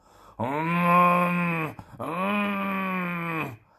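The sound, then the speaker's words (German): Two long, loud growls of a black bear follow each other with a brief pause between, each a deep, drawn-out moaning roar with no talking. “Er wollte mit seinen Scheltworten fortfahren, als sich ein lautes Brummen hören ließ und ein schwarzer Bär aus dem Walde herbeitrabte.”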